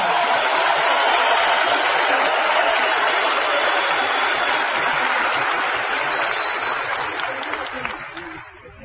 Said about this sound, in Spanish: Ayúdenme a darle un fuerte y merecido aplauso mayor plan de todos nosotros, entonces a Rich y Jay que gracias a ellos estamos acá.